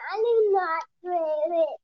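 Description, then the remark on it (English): A young girl's high-pitched voice chatters in two short bursts separated by a brief pause, sounding like playful vocalizing rather than clear words, while she plays with Legos, with no other talk. “if you hear a little voice in the background, that's, that's my daughter playing uh with with Legos, thinking it's funny because she's having a having a gay old time right now.”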